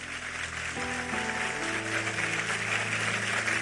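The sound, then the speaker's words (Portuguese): An audience applauding steadily, a dense, even patter of many hands clapping for several seconds, with sustained keyboard chords coming in underneath partway through. “Aplauda forte a ele.”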